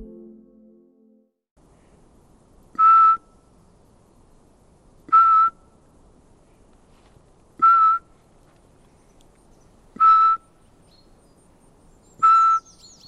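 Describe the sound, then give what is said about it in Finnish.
Five clear, mid-pitched whistled notes spaced evenly about two seconds apart, a person in a forest imitating a Eurasian pygmy owl's call over a quiet background with a faint low rumble at the start. “Ei kuulu nyt kohdelajia. Eli varpuspöllö.”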